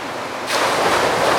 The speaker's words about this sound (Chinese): 哇，这个好大的声音哎！这个是海生馆后场有人造瀑布吗？ 哎，不是，它的话呢，其实是模拟海浪的一个造浪机。